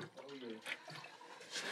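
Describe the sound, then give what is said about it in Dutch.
Water pours in short, splashy bursts into a glass, with a soft voice murmuring briefly underneath. “Ja, ja, ik heb het water. Mag ik het water? Zeg maar ho.”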